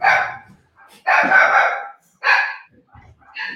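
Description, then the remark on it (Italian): A dog barks and yelps excitedly in several loud, drawn-out bursts as a family member returns home, with short pauses between them and no one talking. “mio cane si è sfogato perché è tornata mia madre.”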